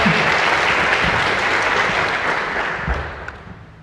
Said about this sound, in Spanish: Así que un fuerte aplauso para eso, ¿verdad que sí? Vamos.